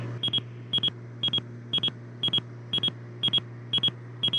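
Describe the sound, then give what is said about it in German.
A steady electronic warning beep from an aircraft warning device in an office repeats in quick double pulses, about two per second, over a constant low hum, clear with no one talking. “Leute, warte mal, da ist unser Flugzeuger da, jetzt piepst, jetzt äh, piepst es gerade.”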